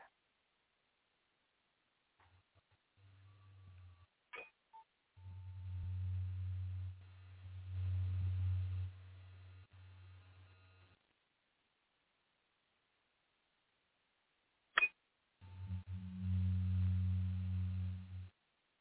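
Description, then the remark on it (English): A faint, low humming tone drones in three stretches separated by silent gaps, steady and even in pitch, with a couple of sharp clicks between the passages. No one speaks. “to sound like a real low humming sound.”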